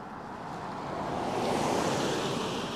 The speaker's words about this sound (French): Ça va faire un peu de piquant dans euh, mon épisode, ça va faire des petits bruits différents. On va laisser passer l'auto.